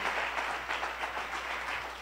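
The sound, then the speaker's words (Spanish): A crowd at a Tabernáculo Ciudad Merriot service claps together in a dense, steady burst of applause for God that fills the space for a couple of seconds, with no voices heard over it. “Denle un fuerte aplauso a nuestro Dios.”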